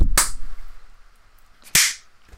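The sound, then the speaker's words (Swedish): Two sharp, loud hand claps, made to sync a recording, ring out about a second and a half apart, with quiet background in between and no talking. “Vi klapp, kan vi klappa om en, en gång för säkerhets skull då?”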